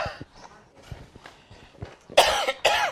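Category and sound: human body sound, person coughing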